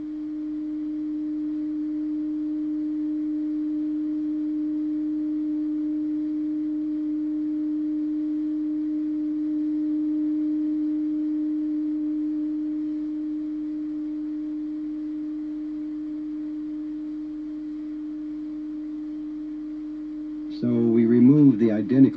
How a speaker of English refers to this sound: If we put the same tone in the other ear, the sound is equal, like this.